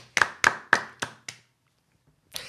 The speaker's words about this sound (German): Das war den Applaus.